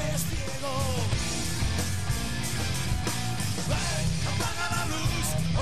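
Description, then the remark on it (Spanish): Loud, dense rock music plays without a break, with driving drums, distorted guitars and shouted vocals, carrying the raw sound of a live concert recording. “¿Pero esto que es un directo o ha grabado un disco?”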